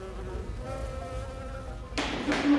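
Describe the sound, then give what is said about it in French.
Steady buzzing of mason bees with a faint tonal hum, growing into a louder, brighter burst of wingbeats near the end, with no voices. “ces butineuses nichent dans tout ce qui se rapproche d'un conduit ou d'une petite cavité”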